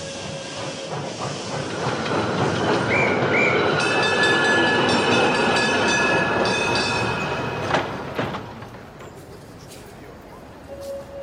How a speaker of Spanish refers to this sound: Otro tren más. Inclusive ahora, cuando casi no me queda tiempo, también es un tren el que me acompaña, el que me lleva a mi destino.